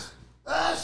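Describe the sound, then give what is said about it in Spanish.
A single loud sneeze bursts out suddenly after a brief quiet moment, a harsh breathy blast that fills the short clip with no talking. “Salud. Eso está bien, que ni me tapé la boca.”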